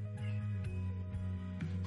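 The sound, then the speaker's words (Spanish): Cats fighting, yowling and caterwauling in a drawn-out, wavering growl throughout, with sharper meow-like bursts breaking in, the sound of a scuffle with no one speaking. “Y mis gatos se están peleando.”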